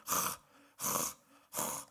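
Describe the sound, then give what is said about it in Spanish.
A person imitates a nervous pet's heavy, anxious panting after a visit to the vet: three loud, breathy huffs in a steady, quick rhythm, with no talking. “Y de la nada el güey se empezó a poner nervioso, güey. Pero un nervio de que. a, jadear como.”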